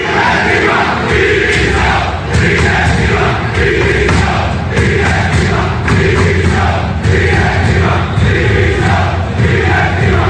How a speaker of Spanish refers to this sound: Eso sí, gritos contra la directiva, gritos contra los jugadores, pero no contra el entrenador.